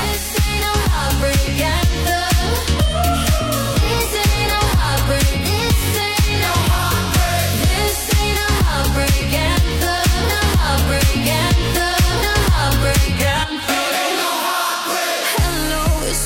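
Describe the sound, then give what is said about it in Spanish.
An upbeat pop dance song plays loudly and continuously on the radio on a Friday morning, with a steady driving beat and full layered instrumentation. Near the end the bass drops out briefly. No one talks over it. “Que suena así de bien en esta mañana de viernes, animándote las puertas del fin de semana.”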